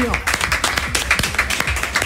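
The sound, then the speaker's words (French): An audience at an Africa Radio broadcast breaks into steady, dense applause for a guest at the host's request, many hands clapping at once in a continuous patter, with voices faintly audible underneath. “on va faire notre challenge parce que tout ce public est arrivé d'ailleurs je vais vous demander d'applaudir s'il vous plaît”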